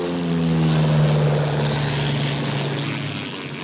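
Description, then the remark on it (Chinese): A small propeller airplane, flown by a wanted fugitive escaping after taking off over police cars, drones steadily and loudly, a low buzzing hum with a rough, whirring prop noise that swells slightly and then eases off. No one speaks. “被通缉的逃犯，竟然驾着飞机逃跑，甚至惊动了自卫队，出动了军用机。”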